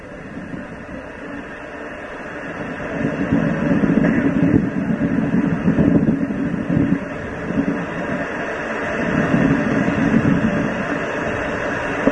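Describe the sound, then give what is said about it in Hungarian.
Strong wind roars steadily with a deep, rumbling hiss, swelling into louder gusts a few times before easing back. It is constant, with no one speaking. “Nem hallottam, nagyon messze volt, lehet, hogy nagyon nagy a szél itten.”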